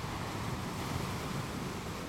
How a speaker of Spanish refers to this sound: Y esta luz de Ya regresa al mar y empieza a crear olas y no te da miedo, solamente observas ese movimiento de olas, del mar, el sonido,